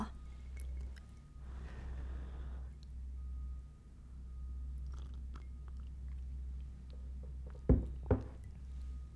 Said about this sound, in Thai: จิบชาต่อ